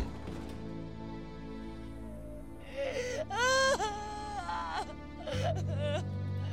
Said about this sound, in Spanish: Y como de repente se oyó el llanto de su madre.